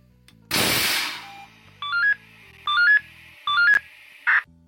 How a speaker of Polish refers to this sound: Cóż, takiego bezpiecznika w Polsce niestety nie ma. Chyba, że będzie to dyżurny ruchu, który widząc całą sytuację włączy sygnał alarm, zwany również radiostopem.